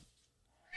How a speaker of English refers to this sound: I don't know if you hear the cats meowing at me. That's Leonidas. Yeah, hi Leo.